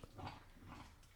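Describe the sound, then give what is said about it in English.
A small dog, Daphne, growls low, with a brief squeaky, grunting vocalization rising over it; the sound is short and fairly quiet, with no talking. “And I'm sorry for the squeaking, the growling, and the noises you hear. That's all her.”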